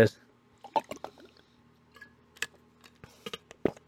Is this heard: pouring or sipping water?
yes